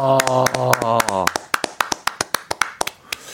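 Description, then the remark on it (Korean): A voice calls out briefly, then steady hand clapping follows, a quick, even run of sharp, crisp claps carrying on to the end. It sounds like a small round of applause, given after a listener's message about having four children is read out. “아, 남의 박수, 말에 박수 한번 주시죠.”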